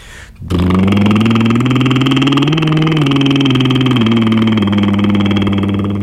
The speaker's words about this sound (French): Par exemple, je fais vibrer ma langue. Mais je peux aussi faire un son vibré mais que avec les lèvres, pas avec la langue.